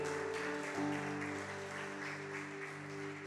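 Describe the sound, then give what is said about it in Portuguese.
A church audience claps steadily and energetically throughout to applaud the Lord, a dense crowd applause while sustained keyboard chords hold underneath and shift once early on. “Vamos aplaudir ao Senhor?”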